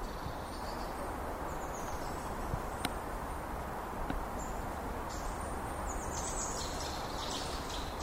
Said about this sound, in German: Ja, und äh, hier stehe ich jetzt in einem kleinen mitteldeutschen Wald. Viele Bäume, ist noch schön grün, Ende des Sommers. Und hier mache ich jetzt einfach mal ein paar Naturaufnahmen wenn ich nicht von Mücken aufgefressen werde.